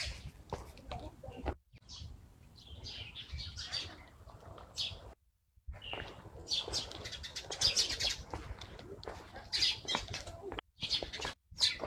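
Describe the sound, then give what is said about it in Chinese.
Dense, overlapping chirping from flocks of sparrows at the Summer Palace (Yiheyuan), where they nest on the pavilions, in humid air with rain expected in the afternoon; bright high-pitched tweets bursting continuously over a low rumble, with a few brief drop-outs where the sound cuts away. “麻雀，一群一群的麻雀。”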